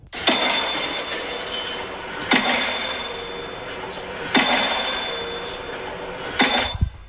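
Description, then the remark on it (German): Construction work installing a heat pump: a loud, steady mechanical roar with a thin high whine, broken by heavy metallic bangs roughly every two seconds, four in all. No one speaks. “Und das Geräusch, das ihr jetzt dann hört, ist der Bau von einer Wärmepumpe.”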